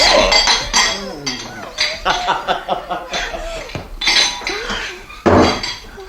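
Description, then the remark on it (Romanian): A small porcelain saucer breaks with sharp clinks and a clatter of crockery, several bright crashes spread through the scene, with indistinct voices murmuring around them. “Am spart o farfurioară.”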